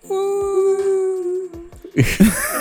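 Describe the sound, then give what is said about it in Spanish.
Whale calls heard underwater in the sea: a long, low whale-like moan holds steady for over a second, then gives way to a brief, dense swell of layered, wavering calls with a watery wash behind them. “Sonido del mar, mega brigio unos sonidos de. Lo eh, lograron así. De ballenita entre medio.”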